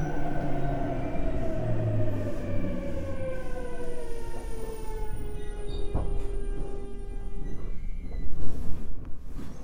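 A JR Kyushu 817 series electric commuter train on the Fukuhoku Yutaka Line between Yoshizuka and Sasaguri, Japan, heard from on board, its motor whine sliding steadily downward in pitch as it slows, over a continuous rumble of wheels on rails. No one speaks.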